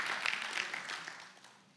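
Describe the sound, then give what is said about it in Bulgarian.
An audience claps in a dense, steady wash of many hands, then the applause gradually thins and fades away over a couple of seconds. “О, ако ръкопляскаш, ръкопляскаш, че наистина вярваш.”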